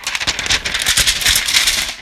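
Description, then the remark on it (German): Crisp, crackling rustle of a sheet of paper with a written-down quote being handled, a busy run of bright, scratchy crinkles lasting about two seconds with no talking. “Das war das Blatt Papier.”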